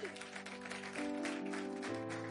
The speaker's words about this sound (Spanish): Dele un aplauso, por favor.